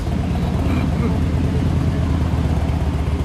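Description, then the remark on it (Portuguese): A heavy motorcycle engine starts and rumbles steadily and loudly, a thick low growl that holds an even level throughout, with indistinct voices mixed underneath. “Parece ligar na moto aí pesada.”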